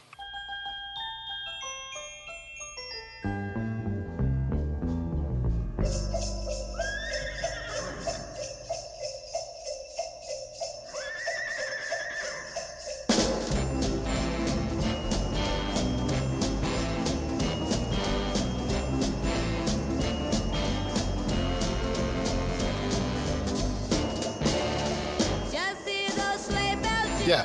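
A 1960s girl-group Christmas song: a tinkling bell-like intro, then clip-clopping rhythm with a horse whinny, swelling into a loud, dense, full-band wall of sound with sleigh bells.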